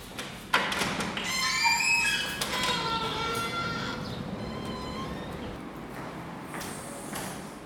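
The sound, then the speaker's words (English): An elevator in an Upper West Side apartment building creaks and groans as it moves up to a floor, with a dull thump at the start followed by several drawn-out, wavering squeals over a steady low rumble. “I took a wonderfully creaky elevator to her floor.”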